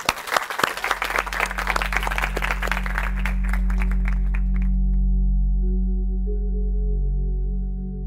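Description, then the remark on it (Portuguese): An audience breaks into loud, dense applause for a man for about four seconds before it tapers off and fades out, leaving a steady low droning hum that runs underneath throughout. “Salve de palmas pro brother aí.”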